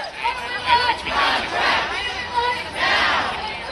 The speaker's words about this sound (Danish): Jamen, de foregår ved, at forfattere samles hver dag faktisk, flere hundrede, og så går de i sådan en cirkel foran øh, den bygning, hvor Motion Picture Association holder til, og så råber det, vi want fair rights.